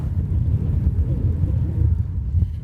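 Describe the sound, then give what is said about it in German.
Strong wind buffets the microphone while travelling along a fairly flat road with the Vosges mountains ahead, producing a steady, heavy low rumble that fills the whole clip with dull, fluttering blasts and no other clear sounds. “Ich weiß nicht, ob man es hört, aber heute haben wir zum ersten Mal ein Windthema.”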